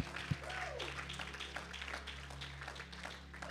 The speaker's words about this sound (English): I don't know if they're watching, let's give them a hand clap of praise. Because we, we love our pastors.